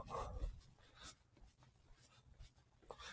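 A crow caws close by, a few harsh, raspy calls spaced irregularly across a few seconds, the first the loudest, with no talking over them.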